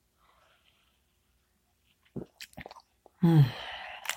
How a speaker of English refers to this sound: first sip.